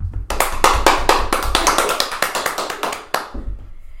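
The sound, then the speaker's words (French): A few people clap their hands together for about three seconds, a quick, uneven patter of sharp claps that stops abruptly, leaving a faint hum. No one speaks. “Petite main d'applaudissement pour elle.”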